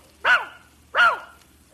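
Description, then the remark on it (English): A dog named Hector barks twice in answer to being asked how much is one on one, two short, loud woofs spaced less than a second apart, with no talking around them. “No, he's a smart dog.”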